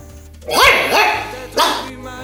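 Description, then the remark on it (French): A dog named Nogat, playing with a ball, barks three times, two quick loud barks followed by a short pause and a third bark, over a low steady background hum. “Tu es bon toutou, Nogat.”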